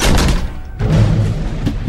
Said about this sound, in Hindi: बिना कुछ कहे अपने कमरे में गया और उसने दरवाजे को जोर से बंद किया